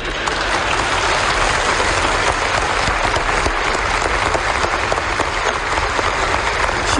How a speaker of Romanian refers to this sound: Nu vă grăbiți să aplaudați.